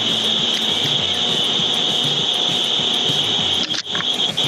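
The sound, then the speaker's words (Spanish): Electric fans switched on in a shop whir steadily throughout, a constant mechanical hum with a bright high-pitched whine on top, briefly dipping near the end but otherwise unbroken and fairly loud. “Yo escucho como un background noise ahí raro, no sé quién será.”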